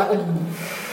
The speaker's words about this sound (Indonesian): Oh, sorry ya, kita lagi di coffee shop, jadi mungkin ada kedengar suara mesin-mesin gitu, suara gangguan.